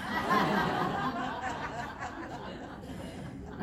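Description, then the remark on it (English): A cat named Perot hisses and growls at a dog, JC, who is just outside the door, in one long, raspy, breathy stretch. It stays fairly loud and steady with rough, throaty tones throughout, and no one speaks. “that's my cat Perot um, hissing at his cousin dog, um, JC, who was just outside the door, and they don't get along.”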